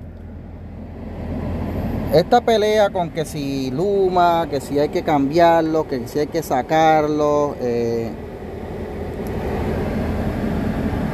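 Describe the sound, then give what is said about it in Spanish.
A steady low rumble of a van engine just started and idling, with a broad rushing hiss of its air conditioning blowing at full, continuing under a man's speech and persisting after he stops. “disculpen el ruido porque fue que prendí la, guagua y se prendió el aire a todo volumen.”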